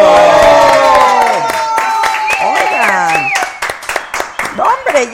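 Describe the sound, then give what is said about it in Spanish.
Applause for a listener who donated a thousand pesos: a burst of rapid, irregular hand clapping mixed with loud whooping, cheering voices whose pitch slides up and down, thinning into scattered claps toward the end. “Oigan, aplausos a Isidro Cuevas nos donó mil pesos.”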